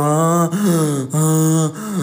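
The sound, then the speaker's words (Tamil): A voice imitates a man choking after his windpipe was crushed, letting out strained, voiced gasps for air in three or four loud heaves with brief breaks between them. “ஒவ்வொரு மூச்சு விடுற சவுண்டு எல்லாமே எனக்கு அவ்வளோ கிளியராக அவ்வளோ இதாக கேட்டுச்சு எனக்கு மட்டும் இல்லை அந்த ரூம் ஃபுல்லாகவே அவ்வளோ கிளியராக இருந்துச்சு”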